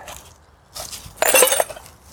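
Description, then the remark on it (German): Broken glass crashes and clatters in two quick bursts, the second louder and brighter with ringing clinks of shards, and no one speaks. “So, Handvoll Scherben weg.”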